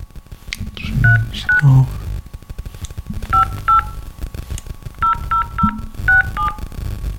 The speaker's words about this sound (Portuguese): Para recuperação do número de contrato, por favor, digite diretamente no seu telefone o seu NIF.